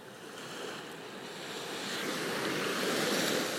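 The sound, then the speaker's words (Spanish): Ocean waves wash steadily onto a shore, a broad continuous hiss of surf that swells gradually louder toward the end, with no voices present. “Escucha las olas, Siente el aire.”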